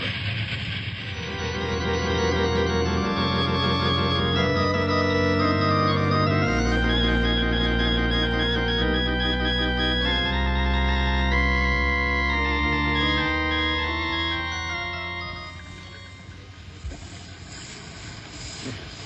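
A train brakes hard to stop before a collapsed bridge, its stopped wheels skidding along the rails with sparks: a loud, sustained metallic squeal of layered shrill tones that waver and shift pitch before easing off into a low rumble near the end.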